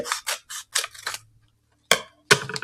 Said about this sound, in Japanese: ハサミを入れました。